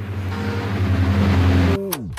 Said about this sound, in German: Da kommt eine Taxi. Taxi!